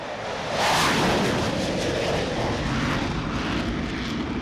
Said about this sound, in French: Sur 75 mètres, les deux catapultes propulsent les rafales à 250 km/h. Un nuage de vapeur recouvre le pont à chaque passage.